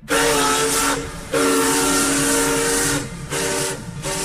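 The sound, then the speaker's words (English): The trademark steam locomotive whistle of engineer Casey Jones blows loud in long drawn-out blasts, with a brief break and a couple of short gaps, its harmonic tone riding over a thick rush of hissing steam. “Its unique sound involved a long, drawn out note, a sound that became his trademark.”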